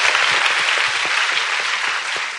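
An audience applauds the students steadily, a dense wash of many hands clapping at once with sharp individual claps poking through, holding an even loudness before easing slightly at the end.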